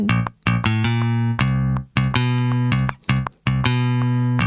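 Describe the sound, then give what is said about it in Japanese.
A rich, jazzy seventh or ninth chord on a keyboard-like instrument, played where the note an octave above would normally be played, struck again and again in a loose rhythm. Each chord rings out loud before brief gaps, with no voices. “この音何だったかな忘れちゃったんですけど、普通だったらオクターブを1オクターブ上のを弾いたりするとこを、多分ね、セブンスとか呼ばれるちょっと、ちょっとおしゃれなやつ。”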